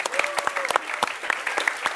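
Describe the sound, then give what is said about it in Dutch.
An audience claps continuously for the week's volunteers, a dense patter of overlapping hand claps with sharper individual claps popping out, steady and fairly loud throughout. “Give all these guys oh, a big hand. Geef mensen een applaus.”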